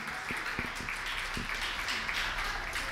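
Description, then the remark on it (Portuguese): A church audience applauds Jesus steadily, a dense wash of many hands clapping at once, fairly loud and sustained throughout with no voices standing out. “Vamos aplaudir Jesus com alegria.”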